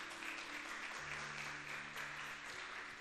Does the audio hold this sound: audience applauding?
yes